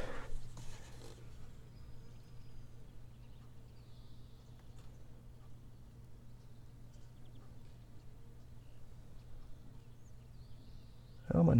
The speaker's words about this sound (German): ein paar Vögel, irgendwo summen auch Insekten.